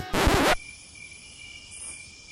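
A faint, steady high-pitched trill of crickets runs through the background after a brief loud burst of noise at the start. No one speaks.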